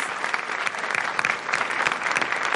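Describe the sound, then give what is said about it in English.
Steady, dense applause from an audience in Orizaba, Veracruz, Mexico, welcoming musician Enrique Chavez Marquez, a continuous crackle of many hands clapping at once with no pauses and no voices standing out. “Please welcome with a warm applause”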